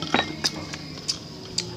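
A spoon stirs Vietnamese coffee in a glass, tapping the sides in a handful of light, bright clinks spaced unevenly over a couple of seconds, with no talking.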